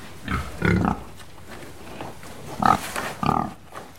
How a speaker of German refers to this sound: wirft den Schweinen etwas Futter hin. Sie drängen sich ums Gitter, suchen mit ihren Schnauzen nach Körnern.